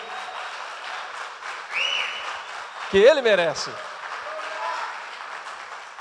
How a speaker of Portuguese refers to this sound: Ele merece o nosso grito, ele merece o nosso aplauso.